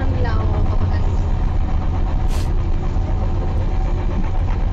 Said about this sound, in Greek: τρένο είναι αυτό, ε.